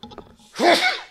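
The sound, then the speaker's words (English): A single loud sneeze bursts out after a brief faint murmur, its sharp explosive blast trailing off quickly. “Bless you, man.”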